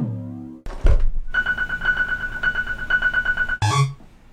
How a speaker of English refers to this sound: voltages generated at the same rate as these kick drum rhythms apply it to a parameter, so if we apply it to the pitch of that, every time there's a kick drum, it changes the note of the kick drum. I really like that. It's not regular.